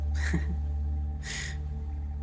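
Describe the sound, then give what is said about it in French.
Two harsh, raspy crow caws in a video game, one near the start and one about a second later, over a steady low hum of game background sound, as the crow grabs the player to carry them to the next level. “là, on récupère la dernière plume et on s'est fait attraper par le corbeau pour nous emmener vers le prochain niveau qui est celui-là.”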